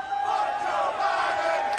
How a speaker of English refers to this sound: you also told me, as you can hear the chants from the, the crowd,